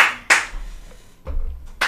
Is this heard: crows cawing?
no